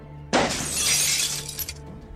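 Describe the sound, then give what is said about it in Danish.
The glass panes of a greenhouse shatter with a sudden loud crash, followed by a bright, sustained spray of breaking and tinkling shards that fades over about two seconds. “Billedet skifter til et smadret drivhus, hvor forstanderinden sidder meget bredt og stiger på Mikkel. Der ligger glasko overalt.”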